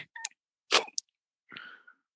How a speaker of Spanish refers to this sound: ¿Eso es un estornudo? Sí.